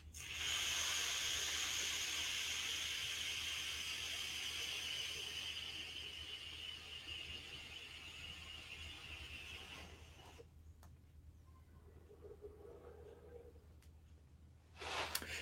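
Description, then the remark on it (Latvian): A vape coil sizzles and hisses steadily for about ten seconds during a long inhale at maximum power of 80 watts, loud, then cuts off abruptly, leaving a quiet low hum with a brief rustle at the end. “desmit sekundes tas te nostrādāja. Uz beigām atslēdz man nos, bet arī palīdzās tās ritīti karsts.”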